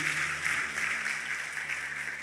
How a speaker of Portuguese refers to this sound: Você pode dizer glória a Deus? Vamos aplaudir o Senhor por essa palavra poderosa. Glória a Deus.